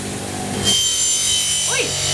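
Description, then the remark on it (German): A grinder starts up partway through and keeps up a loud, harsh, steady hiss as a hatchet is sharpened against the wheel in a sharpening shop, sparks flying; a faint voice briefly sounds underneath. “du schärfst jetzt meinen Beil, ja?”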